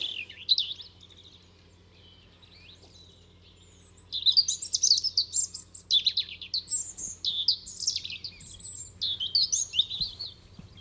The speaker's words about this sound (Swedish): Ja. härliga gnistrande toner eh, den har, den här rödhaken.